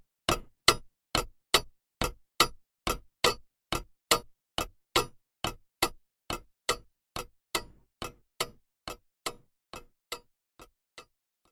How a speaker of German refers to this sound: Im Himmel, da tickt leis die Uhr.